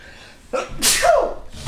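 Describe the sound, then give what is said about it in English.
A single sharp sneeze bursts out, with a quick inhale before it and a brief breathy tail after. “Bless you.”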